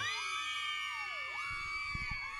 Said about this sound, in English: And the girls are screaming. Yeah, I, going wild.